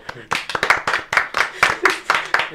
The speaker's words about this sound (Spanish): Un aplauso para la señorita, por favor.